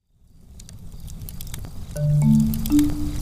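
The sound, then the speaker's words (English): A campfire crackles steadily, with sharp pops and snaps over a low roaring rumble that builds in the first half second, and a faint whistling hiss rising near the end. “Campfire.”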